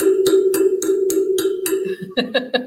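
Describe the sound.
Sharp taps in a steady, even rhythm, about seven of them, mimic a young man hammering on a train wheel with a little hammer, then three quicker, duller knocks follow, all over a continuous low droning hum.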